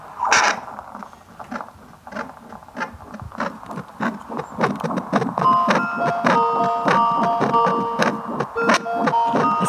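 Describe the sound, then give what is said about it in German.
Rhythmic whooshing heartbeat pulses from a fetal doppler, a heart-tone monitor made for babies in the womb, repeat steadily, and about halfway through a beeping electronic warning melody starts, because the device finds the heart rate too slow for a baby, and plays over the beats. No one speaks. “Das ist darum ein Herztonmesser extra für Kinder, ja. die noch im Bauch sind.”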